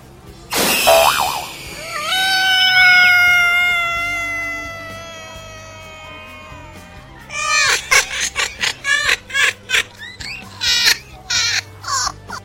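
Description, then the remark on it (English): A long, drawn-out cat meow rises and wavers for several seconds, then gives way to a rapid series of short, scratchy bursts. No one talks. “That crazy cat was trying to get our Christmas list.”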